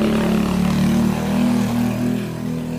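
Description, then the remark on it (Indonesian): A loud, throaty motorcycle exhaust rumbles with a steady droning engine note, swelling slightly as it passes, with no voices over it. “mohon maaf ini endorse-nya sekarang kenal pot motor iya”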